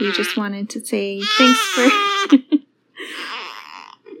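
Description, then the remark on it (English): A newborn baby boy, a little over two weeks old, fusses and cries in the background while an adult speaks and briefly laughs, the infant's wails rising and overlapping the talking. “you can probably hear him in the background.”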